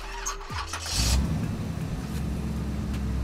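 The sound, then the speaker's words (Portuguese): Someone vocally mimics a car engine starting: a brief whirring crank, then a steady low idling rumble that carries on fairly loud to the end. “Vou conversando dentro do carro dele. Você dá uma partidazinha.”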